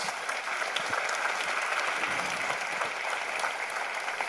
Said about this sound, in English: A round of applause.